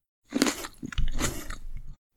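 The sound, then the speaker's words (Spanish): Wet, crunchy chewing of grapes, one grape eaten with each bell chime, with juicy squelches and soft smacking bites in irregular bursts over about two seconds, fairly loud and alone with no talking. “Me encanta comer uvas.”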